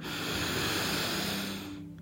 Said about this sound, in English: Take a deep breath in through your nose and out through your mouth.